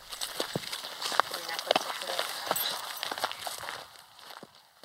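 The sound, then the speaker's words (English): Steady footsteps crunch and swish through dry grass in a farmer's field past horses, towards a small stand of trees, on a cool, overcast morning about an hour northwest of Johannesburg, South Africa; a quick irregular walking rhythm, with faint rustling and a soft background hiss throughout. “Postdoc researcher Marina Elliott leads the way past horses in a farmer's field towards a small stand of trees.”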